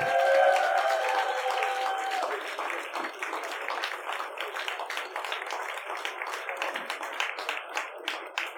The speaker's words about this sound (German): der verdientermaßen natürlich auch einen Applaus bekommt, wenn ich es einspielen kann, beziehungsweise wenn ich den Knopf treffe.